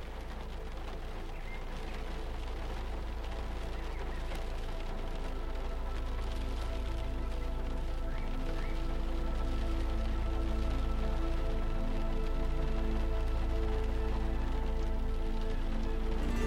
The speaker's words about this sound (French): Vous regardez la pluie tomber doucement.